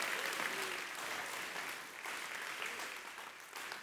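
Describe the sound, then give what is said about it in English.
A church audience applauds steadily, giving the Lord a hand clap in praise, a dense wash of many hands clapping at once, fairly loud and continuous throughout with no voices standing out. “Come on, give the Lord a hand clap.”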